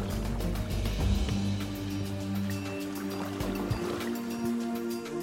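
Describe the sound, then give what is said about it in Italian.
A boat hums steadily along on river water, with a low engine drone and soft splashing and lapping against the hull, continuous. “Sì, in effetti è difficile immaginarlo stando qui sul fiume.”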